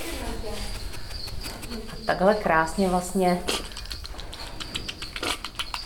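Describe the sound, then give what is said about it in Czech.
An anteater being fed smacks wetly while eating and drinking a quail egg: a series of short, irregular clicking smacks, mostly after a man's brief speech, with a faint steady hiss underneath. “Tedy mlaská a pije to vajíčko. Vajíčko křepelčí mi dáváme těm mravenečníkům.”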